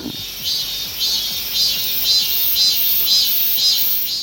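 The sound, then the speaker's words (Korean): A real cicada drones loudly and continuously, its high buzzing swelling in regular pulses about twice a second, with no voices or other sounds alongside. “진짜 매미 소리를 맞춰주는 건데 다시 한번 들어볼까요?”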